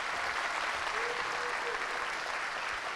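Steady audience applause for a presentation of Technology Will Save Us fills the whole stretch, a dense wash of many hands clapping at an even, sustained level with no voices rising above it.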